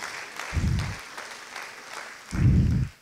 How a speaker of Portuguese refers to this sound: Você pode aplaudir diversidade.